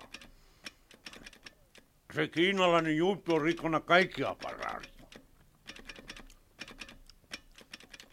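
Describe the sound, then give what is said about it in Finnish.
Quick, sharp tapping repeats in an irregular, steady patter, like fingers drumming on a key. It pauses while a man speaks loudly in the middle, then picks up again afterward. “No, lopeta nyt niin jo tuo naputtaminen.”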